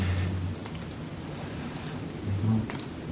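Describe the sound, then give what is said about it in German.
Soft, scattered computer mouse clicks as an archaeologist calmly clicks through a folder of photos from a flight, repeatedly zooming into single shots; a handful of light taps spaced irregularly over a low steady hum, quiet, with no talking. “Er klickt sich in aller Ruhe durch den Fotoordner, zoomt immer wieder in einzelne Aufnahmen hinein.”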